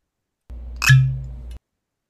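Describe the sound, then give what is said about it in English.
Wild Turkey 101 bourbon poured into a glass: a bright glassy clink followed by a short liquid splash and a low ringing tone, lasting about a second, with no voices. “that was the sound of wild turkey 101 that's getting poured in the glass right now”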